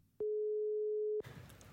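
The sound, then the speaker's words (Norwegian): A telephone ringing tone on an outgoing call from Oslo to Nairobi, Kenya: one steady, clear electronic beep lasting about a second, heard through the line and followed by faint hissy line noise. “Men de har jo telefon der nede, så jeg tenkte vi tar bare og, og, og ringer ned dit”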